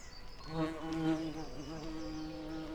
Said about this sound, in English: One sunny day, while Breezy was busy working, she came across a lazy bee named Louie.